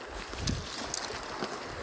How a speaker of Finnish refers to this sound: Ja kyllä vettä menee purossa.